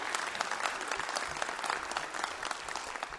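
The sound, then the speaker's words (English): A large live concert crowd at Mountain Stage applauds loudly and steadily, a dense wash of clapping with scattered cheers and whoops rising above it throughout. “What a giant, loud, lovely crowd tonight.”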